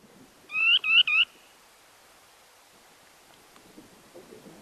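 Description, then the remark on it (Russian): A small spoon-billed sandpiper gives three quick, high, buzzy trilled calls in a row, clear, followed by quiet background with faint rustling. “Просто очень милая, пестренькая птичка. Ну, более того, мы можем даже послушать, как она говорит.”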